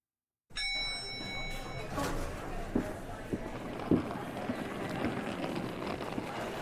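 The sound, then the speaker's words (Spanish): Hurried running footsteps, a handful of quick, evenly spaced steps over a steady background hiss, fairly clear. “Saliste corriendo, estábamos en el lobby esperándote”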